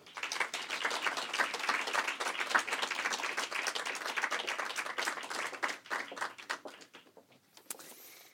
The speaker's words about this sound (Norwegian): Så gi dem alle tre en varm applaus.